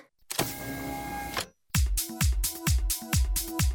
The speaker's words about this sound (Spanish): Abrir puerta principal de cabina.